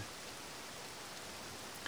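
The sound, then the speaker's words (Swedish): Heavy, violent rain pours down steadily amid thunder and lightning on an island in a lake, a dense, loud hissing wash of drops beating hard on plants and stones, constant with no pauses and no voices. “Den där sortens våldsamma regn som ibland följer med åska och ibland inte och mellan blixtar och dunder hörde vi dess höga brus och hur det slog hårt mot växter och stenar.”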